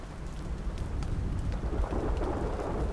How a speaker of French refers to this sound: L'eau se mit à tomber si fort que des gouttelettes commencèrent à couler dans son nid.